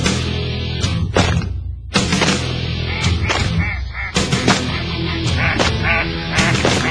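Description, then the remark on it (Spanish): A loud, crowded chorus of ducks quacking, harsh overlapping calls sounding almost continuously in rapid bursts, with no talking. “Somos patos.”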